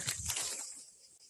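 Cicadas chirring in a steady, high-pitched buzzing drone, fairly faint, with a slight swell at the start and no voices.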